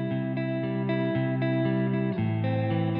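Instrumental opening of a pop song played on radio station KSUU Thunder 91.1, loud, with sustained synth chords, a heavy low end and a steady pulse about twice a second, no vocals yet.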